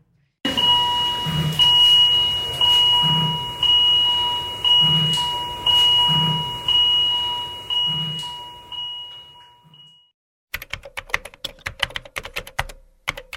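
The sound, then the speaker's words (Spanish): A vital signs monitor in a Spanish ICU beeps, a steady high electronic tone with a repeating chime pattern about every second and a half for ten seconds, then quick clattering keyboard typing. “El monitor de constantes vitales pita cuando un paciente sufre una arritmia, baja el oxígeno o deja de respirar.”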